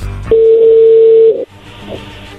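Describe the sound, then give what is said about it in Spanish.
A phone call being placed: one steady, mid-pitched electronic tone holds for about a second, then cuts off, followed by a faint short blip against quiet line hiss. “Bueno, le va a llamar el lobo, no haga ruido, ahí se está marcando.”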